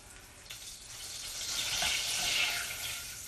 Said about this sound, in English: So, what have you gone for at the moment? About quarter of a pack of butter? Yeah, yeah, I have. So yeah, the butter's melting quite nicely actually. There's a fair bit of uh, butter at the bottom of the pan.